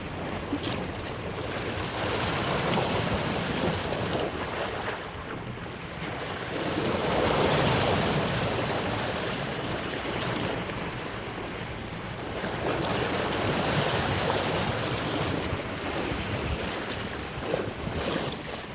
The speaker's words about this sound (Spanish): Esto es El Mar de Cozumel